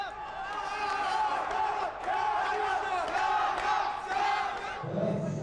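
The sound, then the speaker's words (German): A crowd at a boxing semifinal, Jews and Arabs cheering each other on, cheers and shouts continuously, a dense roar of many voices with rising yells, dipping briefly near the end as a lower rumble takes over. “Man feuert sich gegenseitig an, Juden, Araber, das ist kein Thema hier.”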